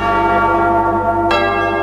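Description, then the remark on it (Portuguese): A bell is rung loudly, its rich metallic tones sustaining and layering, with a fresh strike landing near the end of the short stretch. No one speaks. “Toca o sino”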